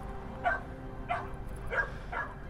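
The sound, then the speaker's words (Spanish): Semi-wild dogs that live on the slopes of the Theban mountain bark in the background, four quick yapping barks spread across the moment, faint and echoing over a steady low background hum, with no one speaking. “De fondo escucharéis los eh, perros eh, casi salvajes que viven en estas laderas de la montaña tebana y que recuerdan un poco la figura del dios Anubis, ese dios con cabeza de perro o cabeza de chacal”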